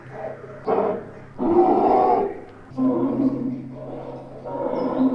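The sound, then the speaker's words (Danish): The deep, rumbling roar of a cave bear, about 3 metres long and 500 kilos, sounds in four or five long, loud growling bursts with short pauses between, over a steady low electrical hum. “Bjørn, bjørn her. Hulebjørn. 3 meter lang. 500 kilo.”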